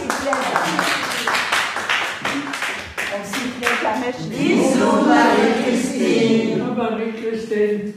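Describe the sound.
Several people clap briskly for a few seconds, sharp hand claps in a quick uneven burst, then the clapping fades as voices rise and talk over the tail.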